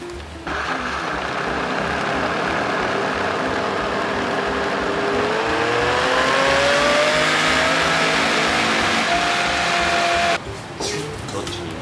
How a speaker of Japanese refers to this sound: ポタージュの元みたいな状態なんですねそうそうですこれからまああとミキサーかけてで何で伸ばそうか